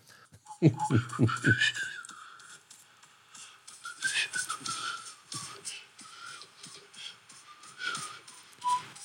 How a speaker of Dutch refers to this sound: Zo zit ik dat in te, te tikken en, eh, en te zingen of te fluiten. In dit geval, ik weet, ik weet dat dit uh, s'nachts was. Heel zachtjes gefloten.